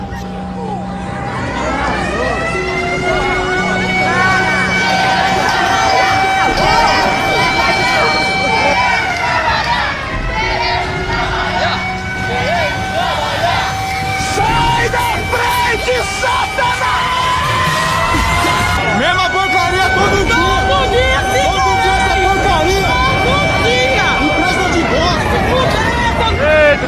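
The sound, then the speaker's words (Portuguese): A loud, chaotic crowd shouts and yells as people riot and break everything during a strike, while wailing sirens rise and fall over the din, continuous throughout. “tá quebrando tudo! Quebrando tudo! Eita, que é babado! Aê, greve no geral aí, ó!”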